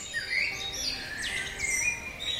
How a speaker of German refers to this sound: Das morgendliche Vogelgezwitscher. Und wir fragen, warum werden die Vögel bei uns eigentlich immer leiser?